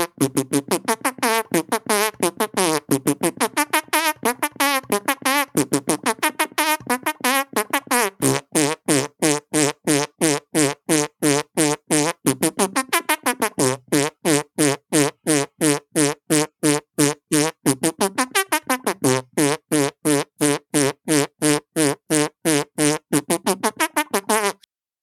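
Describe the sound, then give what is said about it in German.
A fast, rhythmic run of squelchy hand-made noises, like palms pressed and squeezed together, tapping out a driving heavy-metal riff up close with no talking. “Meine Hände sind äh, nicht aufgewärmt, von daher. …, …?”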